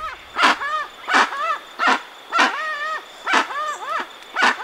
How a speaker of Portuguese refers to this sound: Esse é um dos sons do jacu-guaçu, uma ave que mede até uns 75 centímetros de comprimento, tem as penas escuras e se distribui pela região sul e sudeste do Brasil.